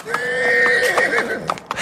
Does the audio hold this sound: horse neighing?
yes